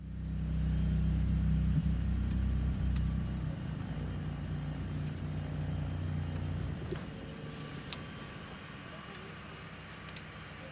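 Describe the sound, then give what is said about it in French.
A boat engine is switched on as the boat gets into position to enter a canal lock, rumbling with a deep, steady drone, loudest in the first few seconds before settling into a rougher, lower throb, with a few sharp clicks and knocks over the top. “Mais non, c'est le signal que nous attendions pour allumer le moteur et nous positionner.”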